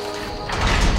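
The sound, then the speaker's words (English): A heavy wooden tower door, unlocked, swings open easily, a brief low scraping rumble that swells midway and carries a dull, hollow weight, with no voices present. “The heavy wooden door opened easily enough.”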